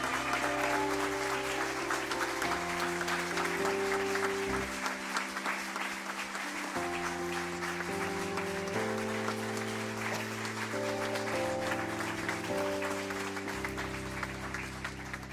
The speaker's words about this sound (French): J'aimerais qu'on invite Vito et Philippe et qu'on puisse les applaudir bien, bien, bien, bien fort.